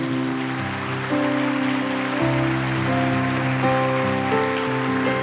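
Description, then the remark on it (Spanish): An audience applauds loudly for the Lord, a dense, steady wash of clapping lasting several seconds, with sustained keyboard chords ringing underneath and no one speaking. “Suelte la Biblia, y denle un fuerte aplauso al Señor.”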